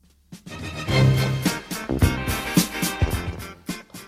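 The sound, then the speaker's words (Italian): A loud, full disco arrangement of Beethoven's Fifth Symphony plays, with punchy rhythmic hits, a driving beat and dense orchestral-style melody, no voices over it. “Quello che sentite è ovviamente, beh, a un, ha un, già dal primissimo ascolto, un eh, arrangiamento celeberrimo della quinta sinfonia di Beethoven in versione disco.”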